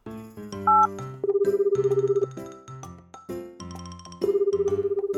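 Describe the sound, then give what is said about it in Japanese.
A phone call ringing tone plays on its own as a call is placed to Tenny-senpai: a bright electronic melody of chiming notes that repeats its pattern, steady and moderately loud, with no one speaking. The call goes to voicemail. “ちょっとテニー先輩電話してみるか”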